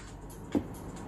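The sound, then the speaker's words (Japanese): A rental dehumidifier, just switched on with its run button, runs with a steady, low whirring hum, fairly quiet, broken by a single brief click partway through. No one speaks. “ここから風のような出てくるんですけど、で作動音はこんな感じですね。”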